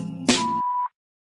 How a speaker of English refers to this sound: … Hotline. Please leave message at the sound of the beep. Thank you.